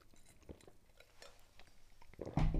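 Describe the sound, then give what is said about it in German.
Soft clinks and small mouth sounds of someone drinking, with a few quiet wet sips and a louder swallow or clunk at the end; no one speaks. “ich trinke kurz ein Schlückchen.”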